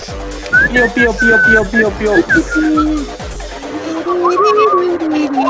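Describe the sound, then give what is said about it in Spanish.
Someone whistles short, chirpy phrases and a quick warbling trill, imitating little birds, over a steady low thumping beat that drops out partway through while the whistling carries on. “Vemos como el sol empieza a salir por el horizonte y todo lo que parecía estar en frío y tinieblas empieza a brillar con la luz del sol y se escuchan los pajaritos de fondo.”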